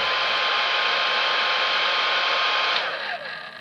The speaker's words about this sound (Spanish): En el tercero Sonaba de fondo lo que parecía una grabación de muy baja calidad de una secadora de pelo.